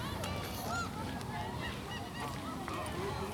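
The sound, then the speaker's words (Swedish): Gulls call repeatedly in a harbour in Vaxholm, their sharp cries overlapping against a busy outdoor hum, as a steady murmur of wind and crowd noise from schoolchildren and pensioners fills the background. “Det är jag och 10 000 skolbarn och 10 000 måsar och 10 000 pensionärer här i Vaxholm idag.”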